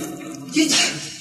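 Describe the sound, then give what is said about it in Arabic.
A single sharp sneeze bursts out about halfway through, short, over a low steady background hum. “يرحمك الله”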